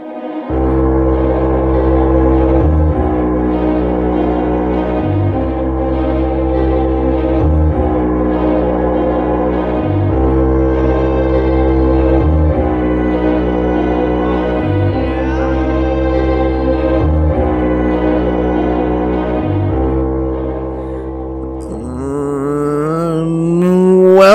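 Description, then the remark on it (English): Loud, steady intro music built on a repeating low pulse in even bars, sustained tonal chords layered above, ending in a bright swelling, wavering tone with no voices. “turned the, the intro music back up for a second there.”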